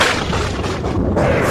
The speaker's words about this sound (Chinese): 我在数打雷和闪电之间的间隔是几秒。说一句大象要花一秒钟的时间，总共是八秒。那么也就是说，现在暴雨距离我们只有八英里远了。